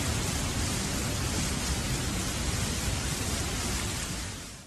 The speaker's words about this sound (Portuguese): Muito bem, é o barulho da chuva.